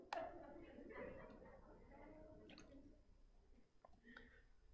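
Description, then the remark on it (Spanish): Someone drinks water: quiet sips and wet swallowing sounds with a few small clicks and gulps spread over several seconds, low and soft against a faint background. “Voy a beber agua.”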